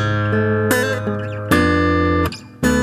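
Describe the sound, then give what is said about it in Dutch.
A slightly out-of-tune, rickety old guitar with a sagging body picks out a slow classic melody, a handful of plucked notes ringing into one another at a steady, unhurried pace, fairly loud with no voices. “Maar als je daar nu een classic op speelt, dan wel, volgens mij.”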